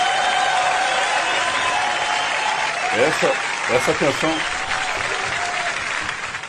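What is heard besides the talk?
applause sound effect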